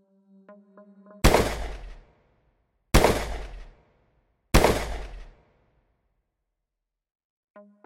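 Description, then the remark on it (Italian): Three deafening pistol shots ring out in a bedroom at steady intervals, each leaving a short echoing tail that fades into silence. Faint electronic beeping tones come just before the first shot and again at the end. “Ma prima che Terry possa realizzare qualcosa, sente una serie di esplosioni assordanti che risuonano nella stanza.”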